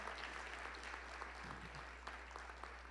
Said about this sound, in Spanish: Démosle un aplauso al Señor, hermano. Démosle un aplauso al Señor.